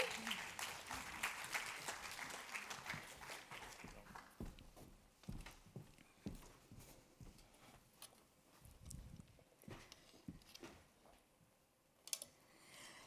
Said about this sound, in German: Danke vielmals. Ich glaube, es gibt einen Applaus für Sie alle.